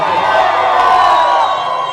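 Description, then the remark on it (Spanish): An audience shouts and cheers loudly and continuously for a couple of seconds when asked to show how they feel, a dense wash of many voices yelling and whooping together with no single voice standing out. “Yo quiero que usted a través de un salto, un grito, lo que sea, me, cuente cómo se siente en este momento.”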